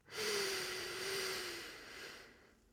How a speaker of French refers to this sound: Après avoir pris conscience de votre état d'aujourd'hui, reconcentrez-vous sur votre respiration et sur le rythme. Comme nous l'avons déjà vu, inspirez en quatre temps.